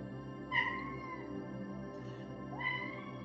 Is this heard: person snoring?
no